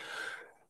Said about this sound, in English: I'm gonna sneeze. Um maybe.